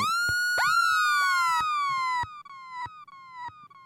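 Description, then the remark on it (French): A synthetic siren tone swoops in bright harmonic sweeps, chopped into rapid stuttering repeats with sharp clicks, like a dub siren effect fed through a choppy delay. “le chant des sirènes et des soundsystems”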